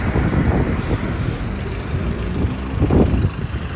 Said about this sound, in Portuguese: Chegou meu ônibus.